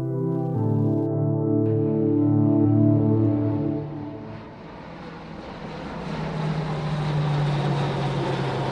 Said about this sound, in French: Ce bruit que vous entendez, c'est le décollage d'un C-130, un avion de transport de la US Air Force, il y a quelques jours sur la base de Lechfeld dans le sud de l'Allemagne, l'un des centres d'entraînement de l'exercice Air Defender 23.